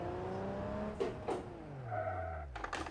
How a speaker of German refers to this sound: Okay, Reifen erstmal durchgedreht.